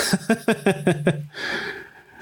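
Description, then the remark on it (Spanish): Close to the microphone, a dog gives a quick run of six rhythmic, throaty snorts, then a longer, noisy huff of breath that trails off. No one speaks. “ah, miren, ahí está, el perro científico.”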